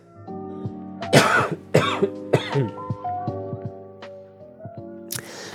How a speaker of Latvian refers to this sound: Piedošana, klepus, klepus.